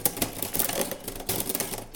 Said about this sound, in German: Und ich muss auch wieder mitschreiben mit der Schreibmaschine, weil es könnten natürlich beweismäßige Sachen vernichtet werden.